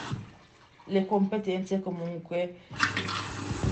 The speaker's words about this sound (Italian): scusa il rumore della lavatrice